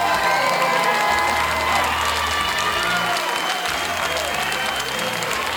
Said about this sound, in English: He pitched very, very well here tonight. And he deserves a big time ovation from this Express crew as he's going to give a high five to Manny Castellano before he takes them out for his warm up pitches. Here comes the ovation from the crowd.